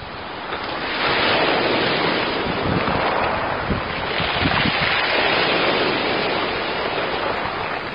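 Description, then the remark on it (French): Waves wash steadily over a pebble beach at Collioure, France, at 5 a.m. on 23 September 2002, a broad continuous roar with swelling surges and scattered clattering bursts of stones, loud throughout, with no voices. “23 septembre 2002, Collioure, France, le bruit des galets et des vagues.”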